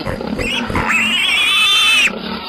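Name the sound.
pig grunting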